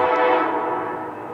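A loud, sustained train horn blares continuously from a train passing through a city, its rich harmonic tone holding steady before easing slightly toward the end, with no talking.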